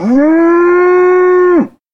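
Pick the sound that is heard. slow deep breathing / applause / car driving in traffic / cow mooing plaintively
cow mooing plaintively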